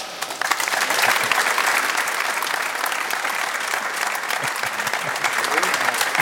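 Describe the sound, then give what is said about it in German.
An audience applauds steadily as Lutz Wagner, the lead coordinator for referee rule interpretation, is welcomed on a football talk show. A dense wash of clapping starts abruptly and holds at a fairly loud, even level throughout, with no voices standing out. “Applaus”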